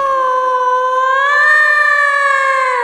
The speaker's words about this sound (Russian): Тихо! Что тихо? Ты крик слышал? Чей? Ну, если б я знала Жуткий вопль